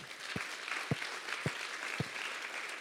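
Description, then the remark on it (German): An audience applauds the children's workers seated there, in a steady, dense wash of clapping, with four evenly spaced low thumps punctuating it about every half second. No one speaks. “Trotzdem alle Kindermitarbeiter, die hier sitzen, auch euch einen Applaus.”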